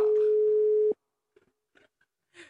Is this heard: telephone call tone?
yes